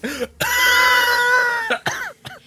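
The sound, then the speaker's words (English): A loud coughing fit from breathing in too much smoke: a long strained, voiced wheeze followed by three quick harsh coughs, with no talking. “he sometimes breathes in too much smoke. That's the coughing.”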